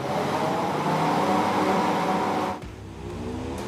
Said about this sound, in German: Deshalb sollen die neuen E-Autos nicht nur angenehm klingen und die Anforderungen erfüllen, nein, vielmehr, die neuen Sounds sollen typisch sein für ihren Hersteller. Toller Klang, aber nicht wie herkömmliche Verbrennungsmotoren.